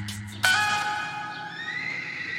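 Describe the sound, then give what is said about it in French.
A single horse neighs loudly at the Le Loup-Garou riding centre in Lezé, Deux-Sèvres: a sudden high whinny with a wavering, harmonic pitch that slowly trails off over about two seconds. No one speaks. “Nous voici à Lezé, dans les Deux-Sèvres, au centre équestre Le Loup-Garou.”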